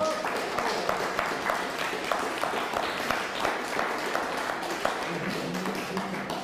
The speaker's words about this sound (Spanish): Un fuerte aplauso a Perú, por favor.